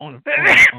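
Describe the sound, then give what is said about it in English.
A single loud, sharp sneeze bursts out, briefly interrupting a person's halting speech that resumes right after. “bless you”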